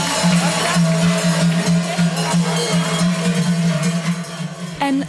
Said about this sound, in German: Und dann sind die drei Sportlerinnen von der Stunde angekommen und mit lautem Jubel, Applaus und Kuhglockengeläut empfangen worden.